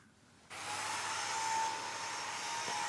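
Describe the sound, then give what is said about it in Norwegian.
A floor sanding machine switches on after a brief quiet moment and runs steadily with a loud, droning motor roar and a faint high whine, with no talking. “Tror du også at lyden av ei slipemaskin betyr at du skal møte en østeuropeer i arbeid?”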